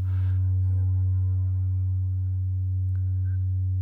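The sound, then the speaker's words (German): A steady, buzzy theremin tone with a sawtooth wave and a chorus effect, low-pitched and rich in harmonics, held loudly for about four seconds, with a brief click near the end. “Ähm, die Sägezahn oder.”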